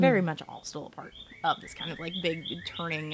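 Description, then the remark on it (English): A person talks steadily while faint, high bird chirps flicker in the background, several short tweets scattered through the speech. “Um, you guys can hear the birds in the background”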